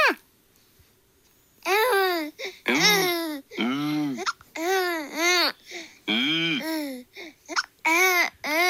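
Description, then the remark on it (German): A baby girl who is just starting to talk babbles in a home recording, a string of high, sing-song vocal bursts with rising and falling pitch, pausing briefly between phrases, loud and clear with no adult talking. “die Bambina und die Frage geht dann an dich, ob das quasi ähnlich ist, fängt jetzt an, so richtig zu erzählen.”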